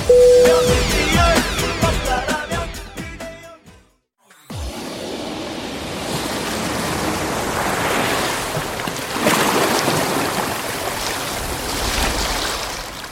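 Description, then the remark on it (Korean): A short burst of music ends abruptly, and after a brief silence, ocean surf at Tumon Beach in Guam, an emerald sea lined with palm trees, rushes in as a steady, loud wash with waves swelling and breaking in rolling surges. “에메랄드빛 바다와 끝없이 늘어진 야자수가 아름다운 괌의 투몬 비치에 도착했습니다.”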